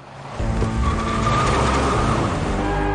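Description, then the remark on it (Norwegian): A car engine roars loudly at high revs while tires screech and skid during råning (car cruising culture) in Bø, the sound starting abruptly and holding steady for the rest of the moment with no voices. “Råning.”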